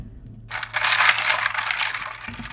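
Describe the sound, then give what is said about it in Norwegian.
Ice cubes rattle and clatter inside a container of ice water, a dense, bright jangling that starts abruptly and continues steadily for about two seconds, fairly loud, with a low hum underneath. “Men først kan vi bare høre hvor mange isbiter som er eh, oppi her.”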